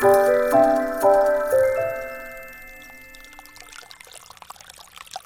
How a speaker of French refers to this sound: Vous entendez ce bruit, les enfants Bah oui, c'est quoi Moi, ça me donne envie de faire pipi. Chut Tendez l'oreille. C'est de l'eau qui coule. Oui, c'est ça. C'est l'eau qui alimente le lavoir d'Exideuil.